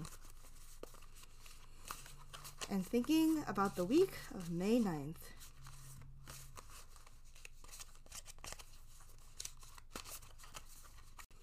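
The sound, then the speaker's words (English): Steady papery rustling and soft flicks as a deck of tarot cards is shuffled by hand, continuing throughout, with a woman speaking briefly over it near the start. “I'm going to sift through my cards, think about this week, the week of May 9th, 2022, and pull out the first one.”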